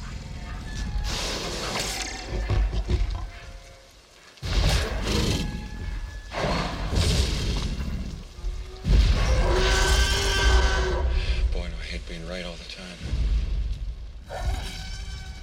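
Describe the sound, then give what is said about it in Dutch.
A layered Tyrannosaurus roar built from animal cries, including a baby elephant's high-pitched scream, delivered as several long, loud, rumbling bursts with a grinding, growling texture and shrill high overtones, separated by brief pauses and heard alone without talking. “So now we'll see how that blends with the rest.”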